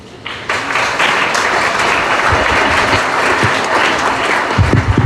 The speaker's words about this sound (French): Applaudissez encore, applaudissez encore.